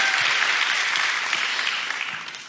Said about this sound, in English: So let's put our hands together one more time as we hear our first story today.